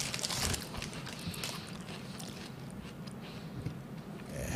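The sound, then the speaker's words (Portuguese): Loud chewing of Cheetos Crunch snacks with crunchy, crackling bites, a dense run of mouth noises and munching that continues steadily without pause, no clear talking. “Barulho de gente comendo irrita, né?”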